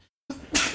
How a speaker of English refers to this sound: Uh, bless you. Thank you.